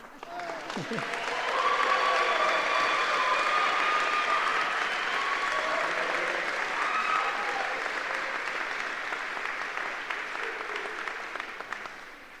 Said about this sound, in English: And now you may clap.